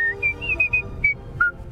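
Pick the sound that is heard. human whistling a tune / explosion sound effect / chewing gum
human whistling a tune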